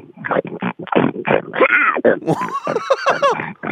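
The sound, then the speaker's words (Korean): A person imitates a pig grunting and snorting while eating, a rapid run of short, rhythmic grunts and squealing snuffles with no pauses for speech. “자, 밥 먹는 돼지 소리 들어보겠습니다.”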